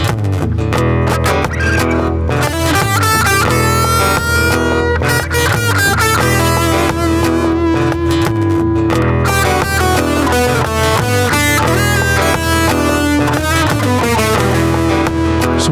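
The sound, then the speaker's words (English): An electric guitar plays through a distortion pedal, thick sustained chords and notes ringing out loud with a gritty, saturated tone throughout. “So this is with my distortion.”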